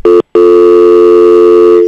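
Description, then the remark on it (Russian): A loud, steady electronic telephone line tone after a phone call drops: a short beep, a brief silence, then one long unbroken tone that holds to the end, with no voices. “Сорвался у нас телефонный звонок.”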